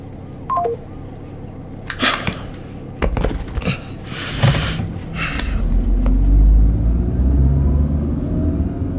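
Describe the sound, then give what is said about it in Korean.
A few short electronic beeps and some clicks, then a car engine is started for departure, turning over and settling into a low, steady rumble that swells louder toward the end. “예, 예, 출발하려고 시동 걸었어요.”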